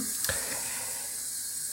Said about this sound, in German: Ja, muss noch ein bisschen Wasser reinlassen.